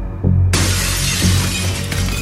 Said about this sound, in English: A shattering of glass from the patio door as a man, fist wrapped in an old flannel shirt, punched through it to get at the lock.